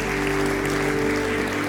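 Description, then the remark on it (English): An audience claps steadily throughout at the speaker's call to clap, a dense, even wash of applause at moderate volume with no break, while a low sustained tone hums underneath. “Clap right now.”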